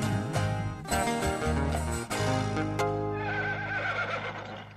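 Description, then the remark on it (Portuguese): A mare, spurred on by her rider, whinnies with a long, wavering neigh over steady music, growing more prominent toward the end. No clear hoofbeats stand out. “Chamou a égua na espora, tá correndo até agora. Ele e a égua sumiu.”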